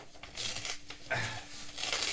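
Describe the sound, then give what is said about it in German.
Paper being torn into small snippets for writing on, with several quick, raspy rips and crinkles following one another in bursts, and no talking over them. “Äh, macht auch schon mal Schnipsel.”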